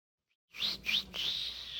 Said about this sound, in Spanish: Estamos chiflando acá a nuestro floor manager